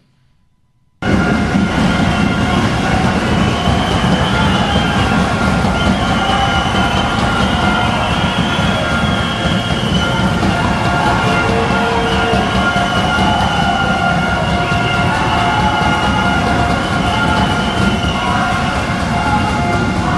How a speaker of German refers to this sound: Es ist richtig Stimmung in der Halle, es ist richtig Bums in der Bude